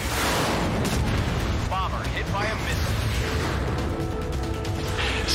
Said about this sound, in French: Ça, c'est arcade avec de beaux graphismes et beaucoup, beaucoup d'explosions